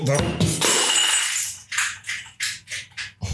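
A half-full glass water bottle hits the floor and shatters with a loud crash, followed by several short bursts of shards clinking and skittering as they settle.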